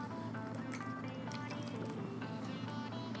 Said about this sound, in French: petite gorgée d'eau.